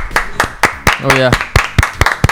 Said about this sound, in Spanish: Aplausos.